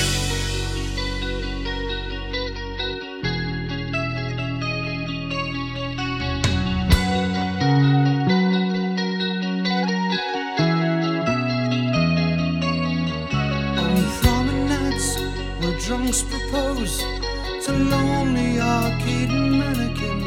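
Rock music with sustained, effects-heavy guitar chords over a steady bass line; partway through, crashing cymbals and a fuller band sound swell in. No one speaks.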